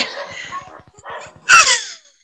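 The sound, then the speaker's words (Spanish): A dog makes noise: a run of short, rough snuffling bursts, then a louder, sharper yelp with a falling whine that fades out near the end. “Pero Uy, el perro me saldrá, el perro me saldrá.”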